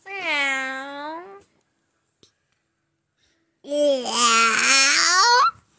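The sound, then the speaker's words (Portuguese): A person imitates a cat's meow twice, first a short plaintive mew, then after a pause a longer, wavering, drawn-out meow. Both are fairly loud, with silence between them. “Eu não, miou o gato. Como que o gato mia?”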